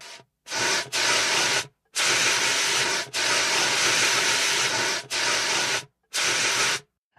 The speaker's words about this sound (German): Ach, das war ein Feuerlöscher. Mhm. Ja, das, da macht man Feuer so mit aus. aus. so hört sich's an. So sieht's nicht nur aus, so hört sich's auch an.